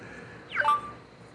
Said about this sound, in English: These fucking notifications. Nike trying to tell me some shit.